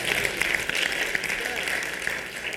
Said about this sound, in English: No, everybody clap, everybody clap, everybody, everybody, everybody, everybody.